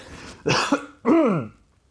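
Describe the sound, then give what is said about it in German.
A person with a frog in the throat clears their throat in two rough bursts, a short harsh rasp followed by a longer, grating clear that dips in pitch. It is fairly loud, with no talking. “ich muss mich nochmal räuspern, ich habe einen furchtbaren Frosch im Hals.”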